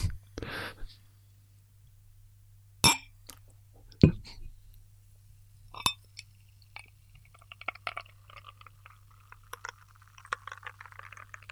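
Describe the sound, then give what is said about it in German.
Glass clinks and a cap pop, followed by dark beer glugging into a glass and a soft, crackling fizz of foam settling, over a low steady hum. “Also, für, für die, oh, meine lieben ASMR-Freunde da draußen, jetzt einmal ein Einschenken.”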